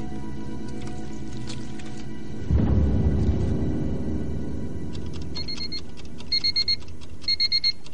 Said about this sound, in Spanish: Suena un temporizador.